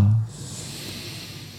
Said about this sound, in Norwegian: Og så puster vi inn gjennom nesa.